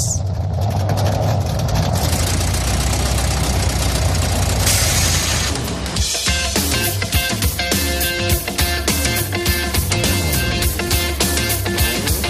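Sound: motorcycle engine running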